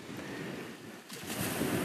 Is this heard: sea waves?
yes